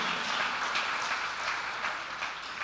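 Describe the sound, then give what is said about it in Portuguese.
An audience at a church service applauding, a steady wash of many hands clapping at once, fairly loud and sustained throughout with no voices standing out. “Dá um aplauso aí, pelo amor de Deus.”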